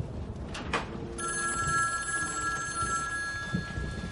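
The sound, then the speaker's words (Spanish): A telephone rings in a home with a steady electronic bell tone that starts about a second in and continues to the end, clear over a low background rumble, with no talking. “Ella corre al teléfono.”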